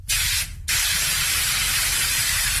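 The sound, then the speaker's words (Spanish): OFF mosquito repellent for the skin sprays out in two loud bursts of hissing aerosol, a short one followed by a brief pause and then a longer steady spray that runs to the end. “Una rutina de todos los días para tu piel que la protege de los mosquitos.”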